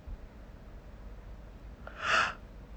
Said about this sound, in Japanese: うん、あくびです。